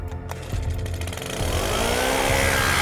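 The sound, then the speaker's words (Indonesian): A leaf blower's small two-stroke engine sputters to life as its starter cord is pulled, then runs loud, its buzzing pitch climbing steadily as it revs up. “Aku cukur rumput-rumput di sekitar tempat itu, lalu aku nyalakan mesin peniup sampah dengan menarik tali starternya.”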